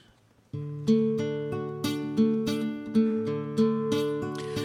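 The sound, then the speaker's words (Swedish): Gentle live guitar picking opens a musical setting of a poem titled En sång, a steady run of plucked notes ringing into each other at a calm, even pace, clear with no voices. “som sitter här med sin gitarr”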